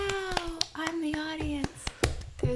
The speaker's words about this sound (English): there's only one clap that we can each do at a time. Everyone's taking turns.